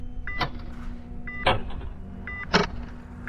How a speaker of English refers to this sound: I wrapped both of my hands on the doorknob and started turning. Somewhere I heard massive tumblers click.